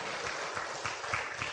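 An audience applauds with dense, steady clapping that holds an even level throughout the short stretch, with no voices breaking through, thanking a senior student for a guqin performance of the piece 'Flowing Water'.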